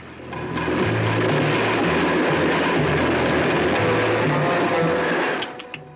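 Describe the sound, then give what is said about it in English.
A steady, loud rumble of a train in motion, with a dense wash of mechanical noise and a low pulsing drone that holds for several seconds before easing off. “You see, it all began when he got off the train.”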